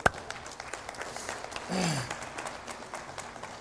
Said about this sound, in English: I want to tell you what, I really would like you to give a big round of applause to the worship team. These guys, go ahead, man.